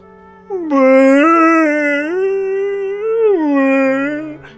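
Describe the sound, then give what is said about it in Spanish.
An elephant cries out in a long, loud, wavering wail that rises and falls in pitch for several seconds, heard alone, with no one talking. “estaba llorando como cuatro elefantes juntos que habían pelado cebollas durante cuatro años enteros.”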